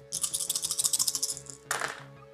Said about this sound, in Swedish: Så det är det tre tärningar plus eh, fem tärningar, så du ska få slå åtta D6or och sexor är eh, lyckade. Och det räcker med en lyckad.